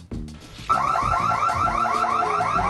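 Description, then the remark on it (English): A loud, piercing electronic alarm kicks in after a brief moment of low rumbling and keeps wailing in a rapid, repeating warble, continuous to the end; the alarm sounds in a French fry restaurant on Ludlow Street around three in the morning as three women trash it. “The sound of the alarm did little to stop three women from trashing Belle Fries on Ludlow Street”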